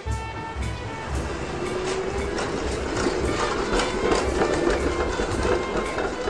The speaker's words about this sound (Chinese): 我喜欢穿行在白石路上的有轨电车。圆滚滚的木块，有辛辣的松木香味。电车带我穿过的，不只是熙熙攘攘的人群、车流，还有时光的痕迹。